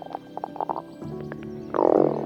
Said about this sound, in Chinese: 哦，肚子咕噜咕噜咕噜的叫，看起来神奇菜头粿的效力已经消失了，大家肚子都饿了。